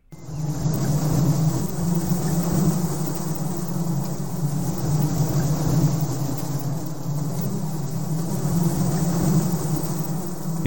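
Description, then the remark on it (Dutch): A swarm of bees fills the air with a dense, continuous low buzzing drone, steady and loud throughout with a faint hiss layered above, and no one speaking. “want eh, bijen kunnen ook zomaar uh, zoiets gaan doen als dit.”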